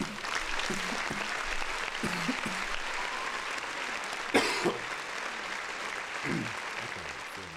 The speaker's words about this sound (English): We out, y'all. Uh, round of applause.